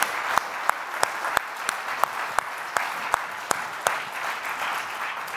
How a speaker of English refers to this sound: Come on, give the Lord a clap offering and praises. Hallelujah. Hallelujah. Hallelujah.